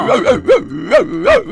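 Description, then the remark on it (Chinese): A human voice imitates a dog barking: five short, rising-and-falling woof sounds in an uneven rhythm, moderately loud and voiced, with no other talking. “就在这个时候，母老鼠学了一声狗叫。”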